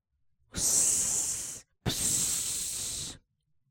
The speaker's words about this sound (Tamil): அடுத்த வீட்ல கோபாலையர் அவர் மருமானுக்கு வானங்கள் விட்டு காண்பிக்கிறார் என்றாள் அவள்